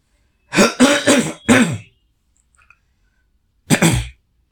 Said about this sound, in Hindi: आज ऐसे ही होता है कभी कभी खांसी आ जाती है भाई क्यों क्या करें